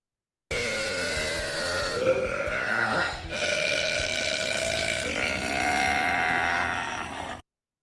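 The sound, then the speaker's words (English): A long, loud burp runs nearly seven seconds, its gravelly, bleating tone shifting abruptly a few times: a montage of four different burp attempts spliced together. No one speaks. “No, that was, I think that was like a montage of four different attempts.”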